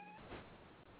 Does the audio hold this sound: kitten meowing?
yes